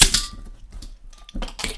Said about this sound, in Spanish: Para comenzar, daremos inicio con el ritual de que suenen los cristales.